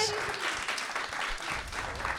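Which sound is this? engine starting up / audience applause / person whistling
audience applause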